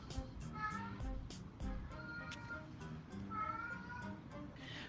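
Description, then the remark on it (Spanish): A cat, Balú, meows repeatedly in drawn-out, wavering calls that sound almost like it's saying "mama," with some background noise and no talking. “¿Lo escuchas? Está diciendo mamá.”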